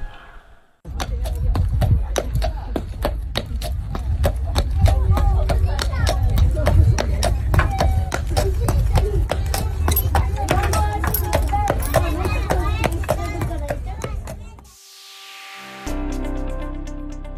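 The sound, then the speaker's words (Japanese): Heavy hooves clop in a slow, steady, plodding rhythm as Fukusuke, a Ban'ei Keiba PR draft horse, hauls a carriage carrying children, with creaks and rumbling underneath, before the sound cuts off near the end. “今週放送したのは馬車を引くバンバの足音でした”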